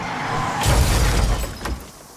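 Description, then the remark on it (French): A loud crash as a truck, struck by a trash can, slams into a tree, a heavy low thud followed by a spray of shattering glass and debris, with a second smaller crunch near the end before it fades; the truck carries 5,000 crystal stemmed glasses. “Et une poubelle a percuté un camion qui est rentré dans un arbre.”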